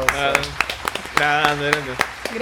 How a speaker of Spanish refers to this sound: Un aplauso.